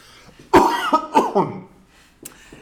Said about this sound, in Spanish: permitime que voy a toser.